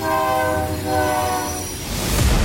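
A train horn sounds a long, steady blast over the heavy rumble of a rolling train, the noise swelling louder toward the end as the cars rush past.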